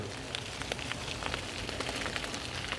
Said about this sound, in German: Es regnet leider.